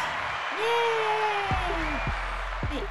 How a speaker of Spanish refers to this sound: Otro aplausito. Tú tienes problema con ese botón. es mi botón favorito. Tú tienes problema. Me gusta ese botón.